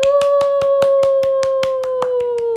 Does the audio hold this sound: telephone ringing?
no